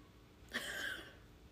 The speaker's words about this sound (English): Do you hear that coyote outside? Is that what that is? Yeah. God damn. That's close. Sounds like a kazoo.